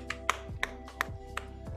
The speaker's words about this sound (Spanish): Y con esto nos despedimos lo primero. Un gran aplauso para Enrique Botella que nos ha acompañado esta tarde.